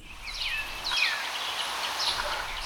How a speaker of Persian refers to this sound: آواز گنجشک های کوچک بلند است